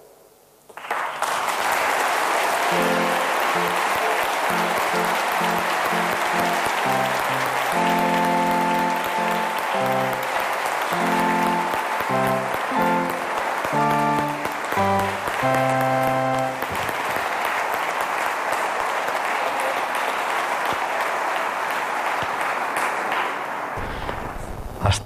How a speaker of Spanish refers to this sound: el órgano se ha unido al aplauso festivo con unos pequeños acordes.